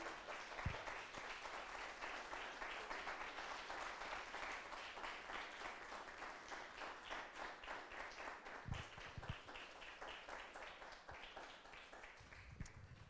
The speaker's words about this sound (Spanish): ¿Cuántos dicen amén? Denle un fuerte aplauso al Señor, mis hermanos.